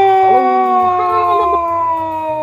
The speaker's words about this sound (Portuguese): Motos!